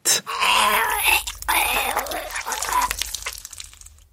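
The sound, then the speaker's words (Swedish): Anguished groaning and wailing soldier death cries from the video game BF1, several strained, moaning voices overlapping in a continuous loud stretch over low rumbling battle noise, fading out at the end. “Så här kan vi klippa in till exempel några dödsljud mm. från BF1.”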